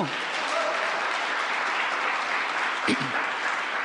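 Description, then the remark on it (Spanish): An audience claps steadily as a clap offering to the Lord, in dense, sustained applause filling the whole moment, with a brief voice breaking through near the end. “Dile una ofrenda de palma Señor, hermano.”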